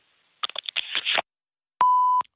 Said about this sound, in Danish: Du er velkommen til at lægge en besked efter klartonen, eller sende en sms, så vender jeg tilbage så hurtigt jeg kan.